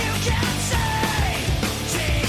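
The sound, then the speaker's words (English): A loud, strained 18-second vocal scream holds steady over dense rock instrumentation, sustained without break and pushed hard at full volume. “the 18 second scream he did”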